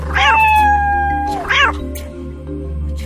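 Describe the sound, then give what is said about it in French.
A cat lets out two loud yowls in quick succession as it leaps to attack with claws out, the first long and wavering, the second shorter and rising, over a steady low background hum with no one talking. “Le chat ne voulait pas se laisser brûler les moustaches et lui sauta dessus, toute griffe dehors.”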